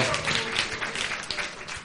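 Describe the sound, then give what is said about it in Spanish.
Steady, dense applause fills the whole stretch, a continuous wash of many hands clapping at an even level, with some indistinct voices mixed in. “un aplauso. un fuerte aplauso.”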